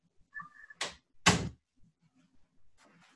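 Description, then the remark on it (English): A door squeaks briefly, then two loud thuds follow in quick succession as it shuts after a dog is let in, with faint shuffling and a soft scrape afterward. No one speaks. “And I have to go let my dog in. He is going to scratch the paint off of my door.”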